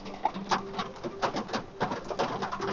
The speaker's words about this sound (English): They both view the forest as all types of birds fly around.